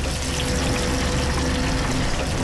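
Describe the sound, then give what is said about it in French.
A steady, dense hiss and patter of hot frying oil draining off flour-coated shrimp as the excess oil is removed, running continuously at an even, fairly loud level with no voices over it. “là, on enlève l'excédent d'huile et puis on va les égoutter comme n'importe quelle friture sur une petite plaque.”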